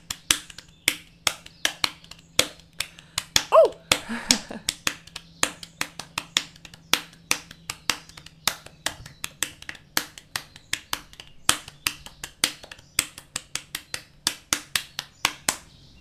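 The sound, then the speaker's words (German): Hands drum rhythmically on a belly, a long run of sharp slaps in a quick, steady pattern with occasional accents, over a faint low hum and no talking. “Also jetzt klatsche ich in die Hände, nicht ja. auf den Bauch.”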